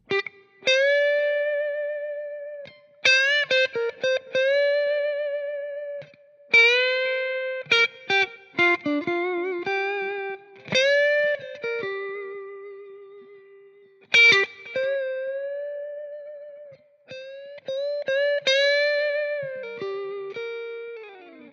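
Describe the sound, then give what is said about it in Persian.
An electric guitar with a distorted, effects-laden tone demonstrates string bending: sustained notes whose pitch is pushed up and slides back down, several times in a row, between quick picked phrases. No one speaks. “مثلا اگر نوت دو رو دارید به صدا در میارید با بند کردن میتونید اون رو به نوت ر برسونید به نوت دو دیز برسونید و نوت های بالاتر از خودش من اینجا یک بندی رو انجام میدم که متوجه منظورم بشید که دقیقا منظورم از بند کردن چیه”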